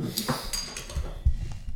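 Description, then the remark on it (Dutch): Beer taken from the fridge, hopped eight times and fermented three times, being poured into a glass, with light glassy clinks and a bright fizzing splash over about two seconds, followed by a low thump and soft clatter; no one speaks. “Dus ik ga hem, ehm, ik ga hem voor jullie inschenken.”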